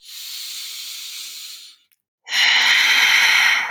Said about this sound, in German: Wir atmen kraftvoll in den Körper.